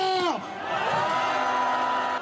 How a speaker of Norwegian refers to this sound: Tusenvis av mennesker i den sørkoreanske hovedstaden Seoul feirer at presidenten i natt ble avsett. Andre protesterer mot avgjørelsen.